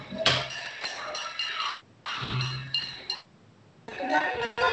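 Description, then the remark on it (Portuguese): Pots and pans clang in a panelaço, a pot-banging street protest in the Vila Mariana neighbourhood, as a dense, continuous metallic din, bursts of rapid banging from many sources overlapping, pausing briefly before resuming loudly, with voices mixed in. “Para vocês ouvirem o panelaço, ouça aí, as panela tá, a panela tá comendo solta aqui.”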